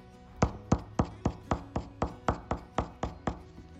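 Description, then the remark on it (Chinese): An HB pencil tip taps dots onto a tabletop, about a dozen sharp, even clicks in a steady rhythm, each short and crisp with a slight woody knock, with no voices. “如果我把它点在桌子上用点的呢？”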